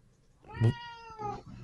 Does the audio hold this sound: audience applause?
no